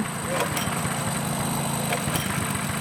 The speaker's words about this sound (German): Während der Zwischensaison wird hier nämlich gebaut. Statt Ruhe und Entspannung gibt es Bagger, Lastwagen und Baulärm.